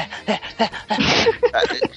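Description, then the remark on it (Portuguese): A person imitates a dog lapping water with a quick, rhythmic series of wet, breathy bursts. A longer noisy gust comes midway, then the lapping resumes. “Às vezes o cara parece um cachorro bebendo água.”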